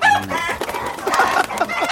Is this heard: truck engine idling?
no